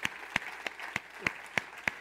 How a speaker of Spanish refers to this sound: Un aplauso al Señor por eso.